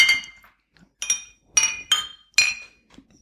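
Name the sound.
glasses clinking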